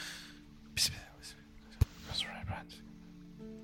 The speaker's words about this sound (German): Ich, ich versuche immer darauf zu fokussieren, ob ich mitkriege, was die da tuscheln. Oh, das ist eine 12. Du verstehst nichts. Du, du hörst nur.